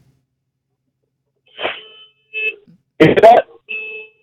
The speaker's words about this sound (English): so yeah, I'll be able to let you hear my alarm.